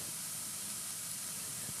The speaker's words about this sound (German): Ähm, es brutzelt jetzt sehr viel lauter, weil das Wasser ist weg. Und wir kommen in die Phase, wo es schön braun wird.